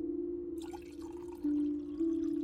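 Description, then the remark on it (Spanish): Water trickles and splashes softly as it is poured into small cups aboard an airplane, over a steady low droning hum that grows slightly louder partway through. “Mariela lleva sus vasitos de agua por el oscuro pasillo del avión”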